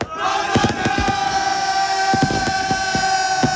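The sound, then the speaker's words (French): Multicoloured New Year's fireworks over a town square in Alsace crackle and pop in sharp bursts, some clustered close together, over the steady roar of a large crowd shouting and cheering joyfully throughout. “Des feux d'artifice de toutes les couleurs illuminent la place sous les cris joyeux de la foule.”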